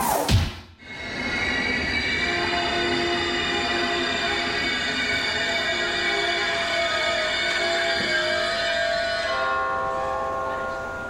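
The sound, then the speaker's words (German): A train rolls into a station on track 3, its brakes letting out a long, high metallic squeal over a steady mechanical rumble that fades slightly near the end. “auf Gleis 3 ist eingefahren … Express aus …”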